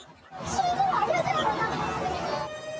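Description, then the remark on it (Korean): A crowd of about a thousand people in confusion during an evening fire at the Lotte Department Store in Jamsil, chattering and milling about, overlapping voices forming a dense, continuous babble that swells in after a quiet start and stays fairly loud throughout. “갑자기 사람들이 우왕좌왕합니다.”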